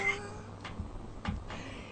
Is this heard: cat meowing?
yes